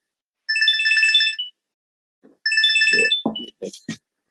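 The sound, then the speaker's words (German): An electronic mobile phone ringtone sounds twice during a conversation, each ring a bright, rapidly warbling burst of about a second. Someone begins speaking as the second ring fades. “Muss man mein Telefon ausstellen, Verzeihung.”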